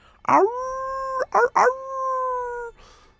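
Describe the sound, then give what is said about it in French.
Wolves howl in the distance in a forest, two long, steady, drawn-out calls, each opening with a rough yelp before holding a clear note, fairly loud and alone, ending with a faint breathy trail. “Tandis que vous entendez plus au loin des loups qui hurlent dans la forêt.”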